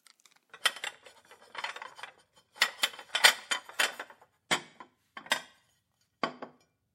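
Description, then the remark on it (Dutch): Dishes and cutlery clink and clatter as a table is set, in irregular bursts of bright, sharp knocks and chimes, busier early on and thinning to a few separate clinks at the end. “Dek jij de tafel.”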